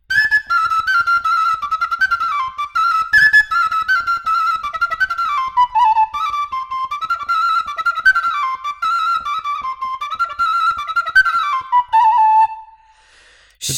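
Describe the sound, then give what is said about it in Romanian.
A Romanian fluier flute plays a brisk Moldavian bătută dance tune alone, its bright, breathy melody skipping through quick ornamented runs before settling on a final held note. “Așa că s-au făcut aceste feluri de fluiere. Cântă așa un pic o, o bătută de prin Moldova.”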